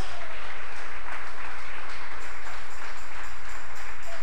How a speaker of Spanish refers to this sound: Dan palmas a Dios en esta hora. Fuerte esas palmas.